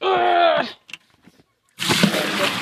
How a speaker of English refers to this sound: Now I can put the water in.